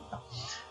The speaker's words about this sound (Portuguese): a nossa vida tem um galo cantando aqui atrás, embora seja 10 para 10, 10 da noite, né? 21 e 51 tem um galo cantando aqui no meu